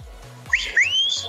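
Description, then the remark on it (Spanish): A two-part wolf whistle sent in by a listener to Abrilex Radio, a quick upward chirp followed by a longer rising glide, loud over a faint low background hum, with no one talking. “es el chiflo, el chiflido de los lobos.”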